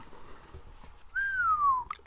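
A single soft human whistle, one smooth note gliding slowly downward for under a second, heard alone and close after a brief stretch of quiet room tone.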